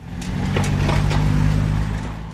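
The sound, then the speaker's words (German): Steady road traffic rumbles on a district road in the Schwalm-Eder district, Germany, where road maintenance workers are filling potholes: a low engine drone with cars, trucks and motorcycles rolling past, tires hissing over the pavement. No voices are heard. “Autos, Lkw und Motorräder und mittendrin die Männer in den orangefarbenen Klamotten.”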